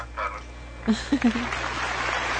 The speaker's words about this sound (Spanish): Aplausos.